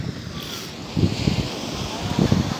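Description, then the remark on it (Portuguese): Sea waves wash onto a beach in a bay in two soft, low surges over a steady hiss of surf, with light wind buffeting the microphone. “Tô vindo até pra beira da praia pra pegar mais o som do mar, já que isso aqui não é uma edição.”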